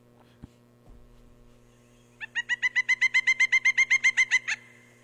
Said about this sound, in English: So, so if you haven't seen this bird, you most likely have heard it if you've been in the woods lately, uh, usually in the spring. Uh, so this is the call of the pileated woodpecker.